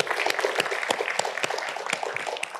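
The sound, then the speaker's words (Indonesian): Audience applause: a dense, steady crackle of many hands clapping at once, with sharper individual claps poking through, sustained at a fairly loud level with no voices. “Tepuk tangan.”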